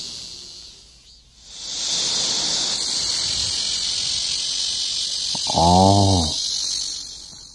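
A black cicada (Cryptotympana atrata) gives its loud, continuous buzzing drone, swelling in after a brief lull and holding steady with no resting cycle, with a short squealing tonal sound briefly overlapping near the end.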